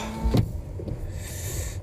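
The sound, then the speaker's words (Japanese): A car's power window whirs, then a sharp clunk and a thin mechanical whine follow as a parking ticket is taken from the machine at a car park near Shinjuku, with low engine hum underneath and no talking. “えー、駐車券を取ってと。”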